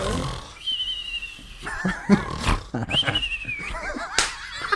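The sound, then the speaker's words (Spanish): A voice imitates the snoring of someone who snores with the mouth closed and whistles: rough breathy snorts alternating with thin high whistles, repeated a few times with brief laughing breaths between them. “y, ronca y chifla, y chifla, porque ronca con la boca cerrada, pero chifla.”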